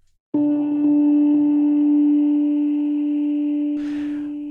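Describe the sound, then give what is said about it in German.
A bright, percussive synthesized tone strikes sharply and rings on, with a few quieter repeats of the attack from a MIDI echo effect following close behind, then a brief noisy burst near the end. “Wir haben ein MIDI-Echo und damit man es besser hört, stelle ich das jetzt mal hier wirklich auf 100”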